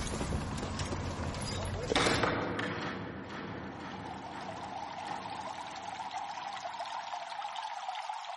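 Water flows and pours steadily in a Roman bathhouse, a continuous rushing trickle that surges briefly louder around two seconds in, then settles into a softer, even stream.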